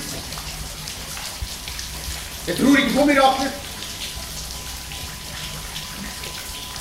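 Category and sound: nature, rain falling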